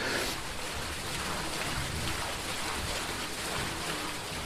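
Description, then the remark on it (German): A steady, dense, loud rush of water fills the whole stretch as a large water wheel, almost four metres in diameter, turns on the outer wall of a mill, churning and splashing without pause. The wheel was installed new in 2020. No one speaks. “Was da so rauscht, ist das große Wasserrad an der Außenwand der Mühle mit fast vier Metern Durchmesser, die Besucherattraktion hier.”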